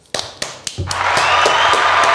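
A few slow, sharp hand claps build quickly into a steady burst of rhythmic clapping that grows fuller and louder, with no voices over it.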